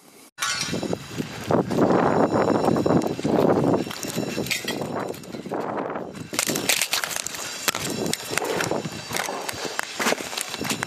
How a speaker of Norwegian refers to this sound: Dette er lyden av en fotograf som prøver å ta seg frem i regjeringskvartalet den dagen terroren også viste ansikt her til lands, den 22. juli 2011.